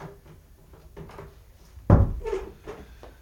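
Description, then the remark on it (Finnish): A single sharp wooden thud of a door being opened as people carry a stretcher away, followed by quieter rustling and shuffling movement. “No avatkaa ovi ja Okay.”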